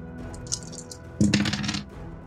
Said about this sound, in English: I'm going to have you roll 3d6.